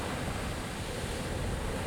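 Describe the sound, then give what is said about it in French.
Rough sea surf roars steadily with gusting wind, a dense, continuous wash of noise filling the whole clip, with no voices. “Il battit furieusement des ailes jusqu'à déchaîner une violente tempête. Soudain le ciel fut noir et les vagues gigantesques.”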